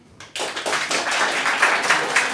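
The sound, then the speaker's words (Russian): A crowd breaks into applause after a brief pause, many hands clapping at once in a dense, steady crackle that holds at a fairly loud level for a couple of seconds. “Не, аплодируйте, бля. Я, бля, да, ну, поаплодирую.”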